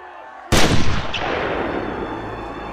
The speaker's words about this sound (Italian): Ed è in quel momento che si sente uno sparo.